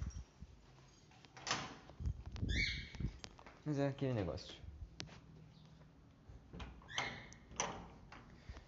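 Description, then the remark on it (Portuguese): A door bangs shut, followed by a small gate creaking open with a squeaky hinge, amid short clunks and rattles while a person speaks briefly, as someone goes out to collect a food delivery. “Fecha a porta. Abre o portãozinho.”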